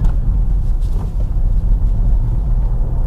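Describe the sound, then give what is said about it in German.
Steady low rumble inside a Dacia car with a three-cylinder turbo engine of 110 PS, driving over a very bad, almost off-road road, with dense low-frequency road and tire noise and small irregular bumps, no rattling, and no voices. “Da fällt schon gleich einmal auf, es klappert nichts. Es wirkt wirklich solide. Die Straße ist ja wirklich schlecht.”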